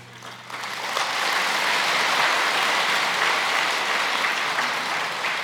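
An audience breaks into applause during a New Year blessing, a dense crackle of many hands clapping that swells within the first second and holds steady and loud to the end, with no voices over it.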